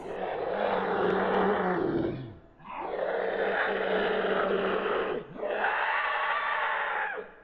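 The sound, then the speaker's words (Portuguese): Three long, harsh creature screams in a row coming from the forest by a tree line, each lasting a couple of seconds with only brief pauses between them, loud with a raw, roaring edge and no voices. “Quando eu fiz isso, eu ouvi três gritos horripilantes vindo da floresta.”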